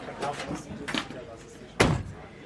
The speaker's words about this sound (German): Die Tür beim Zuschlagen erinnert tatsächlich ein wenig an einen VW Golf, den ich noch von früher kenne.